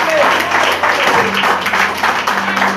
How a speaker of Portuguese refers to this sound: Podem se assentar em nome de Jesus e uma salva de palmas para Cristo, porque Ele merece. Amém?